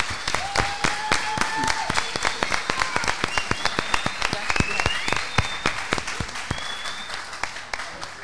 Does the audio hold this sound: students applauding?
yes